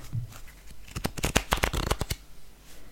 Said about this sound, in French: Non. Mais c'est des... je suis sûr que j'ai entendu des cartes.